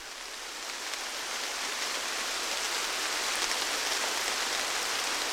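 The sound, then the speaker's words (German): A heavy downpour of rain hisses steadily and densely, a continuous wash of drops with no voices, holding constant throughout. “Wir treten in den Regen, der sich wie immer einmal am Tag wie aus Kübeln über uns ergießt.”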